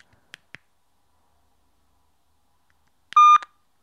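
Two faint, quick key clicks, then after a few seconds of silence a brief, loud electronic phone keypad tone sounds once, steady and mid-pitched, as letters of a name are typed in, with no one speaking.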